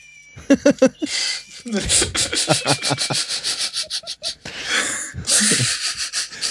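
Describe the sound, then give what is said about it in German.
A pencil grinding in a cat-shaped novelty sharpener that meows when a pencil is inserted: a quick series of rhythmic, raspy scraping strokes, loud and steady, with brief high meow-like tones at the start and again near the end. “Stift ist jetzt wieder angespitzt.”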